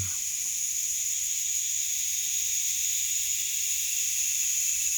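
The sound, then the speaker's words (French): A dense, unbroken chorus of cicadas fills the air with a steady, shrill buzzing that never lets up, loud and saturating, with no voices or other sounds standing out. “Et on commence par ce tapis de belles cigales qui sature l'espace sonore, évoquant inévitablement un paysage méditerranéen”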